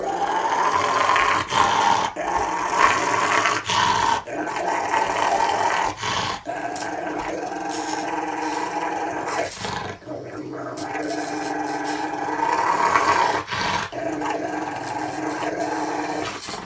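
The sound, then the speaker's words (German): A Rottweiler growls in a deep, sustained rumble that continues almost unbroken with brief pauses, loud, rising and falling in intensity. “Aber wir wollten zu diesen ja. Rottweiler-Videos.”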